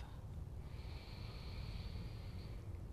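A slow, soft breath drawn through the nose during a guided deep-breathing exercise, quiet, with a faint airy whistle that holds steady for a couple of seconds. No one speaks.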